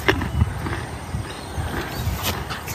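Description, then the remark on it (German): A small white pony, a mare, munches on carrots, with irregular crunchy bites and soft low thumps over a short stretch, and nobody speaking. “auch im echten Leben ein kleines mm. weißes Pony”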